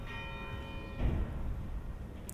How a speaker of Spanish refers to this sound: Suena las campanas de la catedral.